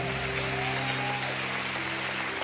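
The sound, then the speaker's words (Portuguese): An audience applauds a pastor who is opening a church in Orlando, a steady, dense wash of clapping that holds at an even level throughout, with a faint sustained tone humming underneath. “Pode aplaudir porque está lá.”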